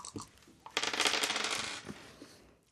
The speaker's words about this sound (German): Und dann würden wir nämlich jetzt würfeln. Ich kann dir die Würfel geben.